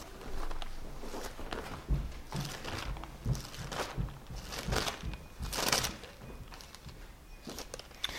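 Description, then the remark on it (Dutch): Irregular footsteps thud and scuff on steps going upstairs, with a few sharper knocks and a soft thump near the end like a door being shut. No one speaks. “Pak er even naar boven lopen en die, die deur dicht doen.”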